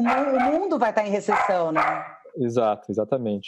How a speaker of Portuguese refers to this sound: Desculpem o latido dos cachorros aqui.